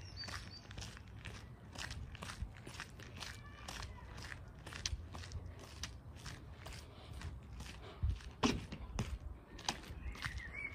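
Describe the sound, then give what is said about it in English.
Steady footsteps in new shoes, worn outdoors for the first time, crunch and scrape over a street made sandy by ongoing work there, each step a gritty, crackling scuff in an even walking rhythm, with faint background hum and a few sharper clicks. “Now, if you think that this whole street sounds a little sandy, you're absolutely correct because uh, they've been working here.”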